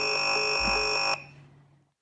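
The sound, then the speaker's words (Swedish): A harsh, steady electronic buzz-tone of a phone line cutting off holds for about a second, then stops abruptly, leaving a faint fading hum. “Där bryts samtalet.”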